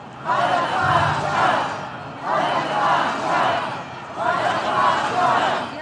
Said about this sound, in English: and Israelis were packed in a Tel Aviv square. They were shouting for the resignation of Netanyahu's government. Resignation now is what they shouted.